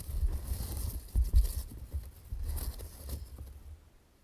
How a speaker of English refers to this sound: I have here with me a hat full of paper strips that have the names and contact information of all who entered. That's the sound of the paper.